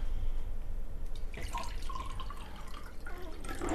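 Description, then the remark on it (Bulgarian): More water pours steadily into a glass for a couple of seconds, its gurgling tone rising as the glass fills, with a faint background hiss and no talking. “Искаш ли още вода? Чакай, да. тук.”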